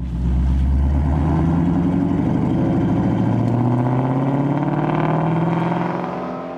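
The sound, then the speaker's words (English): The flat-plane crank V8 engine of a new Ford Mustang GT350 revs loudly, its dense harmonic snarl climbing steadily in pitch for several seconds before easing off slightly at the end, with no voices. “The new Ford Mustang GT350 has a flat plane. Just listen.”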